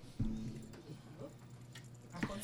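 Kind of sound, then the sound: machine, air conditioner running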